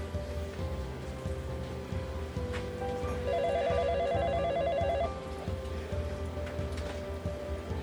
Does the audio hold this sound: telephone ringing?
yes